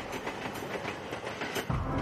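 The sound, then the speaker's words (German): A tram speeds along the rails with a steady rumble and rhythmic clattering wheel clicks, growing heavier and louder toward the end, with no voices. “Stell dir vor, eine Straßenbahn sei außer Kontrolle geraten und führe mit hoher Geschwindigkeit auf eine fünfköpfige Gruppe von Menschen zu, die auf dem Gleis steht.”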